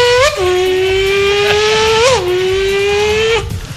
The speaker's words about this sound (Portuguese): Que moto, era, é, que moto era é essa, Fabião? Ela não chegava a 350 por hora.